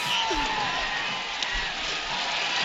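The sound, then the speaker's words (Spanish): A large stadium crowd in Jakarta, Indonesia roars continuously during a match, about 67 minutes in, a dense wash of shouting and cheering with no pauses, loud and steady throughout, with indistinct voices blending into the noise. “Y, por la tele la gente lo ve vacío, pero pues, gritan mucho los que son.”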